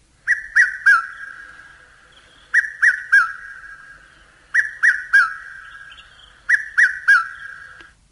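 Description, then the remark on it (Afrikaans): A red-chested cuckoo (Piet-my-vrou), a parasitic species, calls loudly, repeating its three-note whistled phrase four times at steady intervals, each note dropping slightly in pitch, with no other sounds around it. “Dit was 'n eh, Piet my vrou, 'n parasitiese spesie.”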